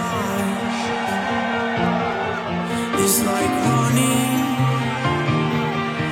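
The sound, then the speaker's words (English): A large crowd at the Ultra music festival in Miami cheers and whoops continuously, loud and spread out, over booming music, with the roar swelling slightly partway through. “Please make some noise for the pigeon.”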